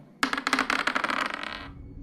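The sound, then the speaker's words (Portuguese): A die is rolled for a tabletop role-playing game check, dropping onto a hard table and rattling in a quick flurry of bright clicks for about a second and a half before settling into silence, landing on 9. “pra quem tá ouvindo, eu nem rolei o da.”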